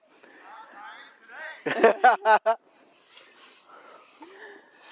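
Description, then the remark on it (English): An animal pants heavily in a quick run of about four loud, rhythmic breaths, with people talking quietly before and after. “Ooh, he is panting like he, he wants to catch up with us.”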